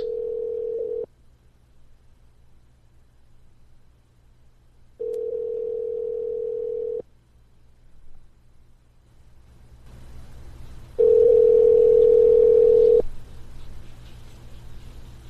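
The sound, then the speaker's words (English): A telephone ringback tone from a phone call placed on live radio repeats three times, steady two-second hums separated by long silences, with no one picking up; the last ring is louder, over a rising background hiss. “But by the not answering, it almost sounds like it really you is.”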